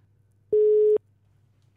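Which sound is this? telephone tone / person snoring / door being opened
telephone tone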